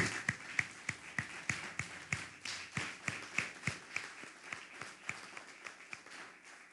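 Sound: loud applause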